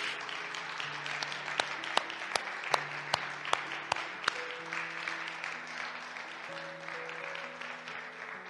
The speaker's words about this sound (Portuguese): Dê um aplauso a Cristo, por favor.